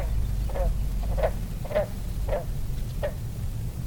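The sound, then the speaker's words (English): A southern leopard frog croaks in a series of five short, evenly spaced clucking calls at a small pond surrounded by yellow pitcher plants, over a steady low rumble of outdoor background noise. “A southern leopard frog.”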